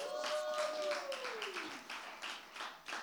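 An audience breaks into steady applause for a volunteer for a demonstration, a dense crackle of many hands clapping for about three seconds, with a long falling whoop sliding downward over the first half.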